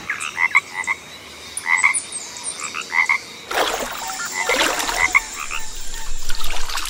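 A frog croaks in short repeated bursts, spaced a second or so apart, against a hissy outdoor background that grows noisier and busier partway through.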